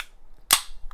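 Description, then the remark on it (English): A can of Alaskan hard seltzer, cherry grapefruit flavor, is cracked open: one sharp, loud pop with a brief fizzing hiss trailing off, then a small click just after. No one speaks. “cracking a cold one open that right there.”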